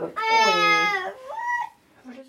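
A one-year-old girl lets out a loud, high wavering cry for about a second, then trails off into softer babbling vocal sounds with rising and falling pitch, in a small apartment in Sankthanshaugen, Oslo, while sitting in a child's chair eating sliced bread with liver pâté.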